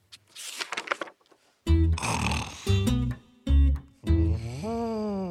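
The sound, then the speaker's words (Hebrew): A sleeping elephant on a path snores loudly and rumblingly in a slow rhythm: a breathy airy stretch, then several deep, rattling low-pitched snorts with pauses between, ending in a long drawn-out groaning snore. “פיל ישן על השביל.”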